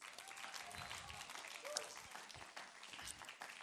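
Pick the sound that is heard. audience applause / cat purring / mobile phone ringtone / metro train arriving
audience applause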